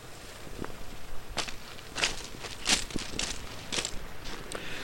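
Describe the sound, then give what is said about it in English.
Crunching footsteps on loose beach stones at Niarbyl, on the west of the Isle of Man, on a breezy day, a steady unhurried pace of about ten crisp steps, with a continuous wash of water underneath. “Right, now you might gather from the sound of water and the sound of stones underneath the feet that we were down on a beach over on the west of the island, Niarbyl.”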